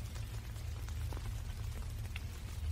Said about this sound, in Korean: 천지에 쌀알이 쏟아지는 듯한 빗소리에 섞인 작은 소리.